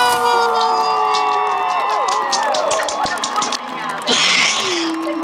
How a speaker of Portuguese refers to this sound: É, eu queria já adiantar aqui que nada disso estaria acontecendo se não fosse a nossa incrível produção. Muitas palmas para a Caixa Caímos!